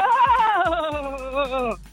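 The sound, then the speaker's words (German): A person imitates a goat, letting out one long, wavering bleat that trembles for nearly two seconds before cutting off, loud. “warst du das mit dem leichten... Ähm Ziegigen Abgang?”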